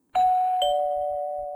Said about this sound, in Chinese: 接着，莱西就照福奇的指示按下门铃，